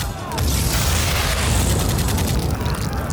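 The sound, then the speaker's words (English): An artillery shell hits with a heavy, sustained rumbling blast that fills the space, a dense low roar with crackling debris-like noise across the top, loud throughout with no clear gaps. “And the shell hit, but wasn't immediately blown to hell rain down onto our heads.”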